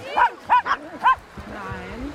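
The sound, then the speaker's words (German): Small dogs, Chihuahuas, bark on the beach at Bansin: four sharp, high-pitched yaps in quick succession, followed by a softer stretch of low murmuring and background noise. “Und der Dusty möchte natürlich jetzt direkt losfegen mit den Chihuahuas, wie man sieht.”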